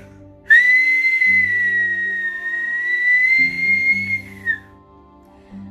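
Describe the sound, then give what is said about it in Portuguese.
A long, steady whistle holds one high pitch for about four seconds without a break, loud, over a soft low droning background. “A presença deste curupira podia ser notada por meio de um assovio constante e contínuo.”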